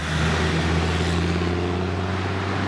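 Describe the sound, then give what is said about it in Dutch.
A truck rolls along the road, its deep engine drone and tire rumble holding steady and loud throughout, with no voices. “Kijk, wat deze vrachtwagen presteert ook goed, zullen we net zien, hè? Komen wij langs.”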